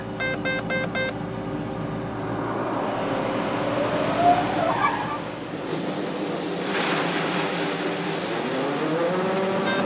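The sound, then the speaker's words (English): A steady engine hum gives way to a loud, continuous rushing pour of harvested corn, about 12,000 pounds or 300 bushels, cascading into the back of a truck, building in intensity toward the end, with no voices. “Joe empties the corn he already harvested into the back of a truck”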